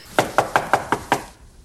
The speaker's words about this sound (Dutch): Een entree van niks. Netjes aankloppen op de deur. Wachten tot de deur open wordt gedaan.